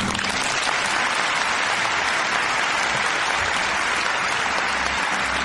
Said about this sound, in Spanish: te has ganado un aplauso ensordecedor.